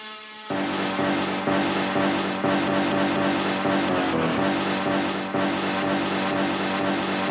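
A race car engine on the Misano racetrack, recorded with an analog recorder, roars in a loud, steady, harmonic drone with a brassy tone, pulsing in a regular rhythm after a brief quiet opening. No one speaks.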